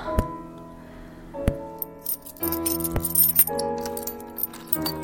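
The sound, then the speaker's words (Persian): Keys rattle and jangle in several uneven bursts of sharp metallic clinks as someone fumbles to unlock a door with a key until it opens, over a steady droning tonal background. “اوه چشمام با دستم هماهنگ نیستن نمیتونم کلیدو آه, آه باز شد”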